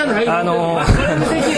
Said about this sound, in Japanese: 同時並行でちょっとあの隣でいろんな話が進行してますので、えー、若干聞こえにくいところあるかもしれませんけどもすいませんがどうかご了承ください